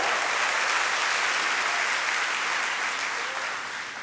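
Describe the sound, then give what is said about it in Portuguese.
An audience applauds steadily, a dense wash of many hands clapping at an even loudness for several seconds before easing slightly at the end, with no voices audible. “Pode uma salva de palmas ao Senhor, querido.”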